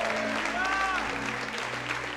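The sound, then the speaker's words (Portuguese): An audience applauds the Lord in a dense, steady wash of clapping that holds for about two seconds, with a raised voice and some sustained tones rising above the noise. “Dê um brado ao Senhor e aplaudo.”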